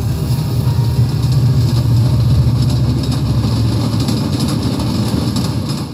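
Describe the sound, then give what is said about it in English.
A steady, heavy low rumble of a train rolling along the tracks, with a continuous mechanical drone and faint rattling, loud throughout with no voices. “He traveled by way of train.”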